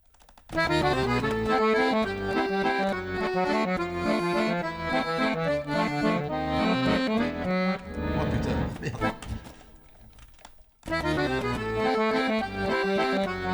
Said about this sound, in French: Tout de suite, on va marquer une dernière pause musicale sur Radio Campus Paris.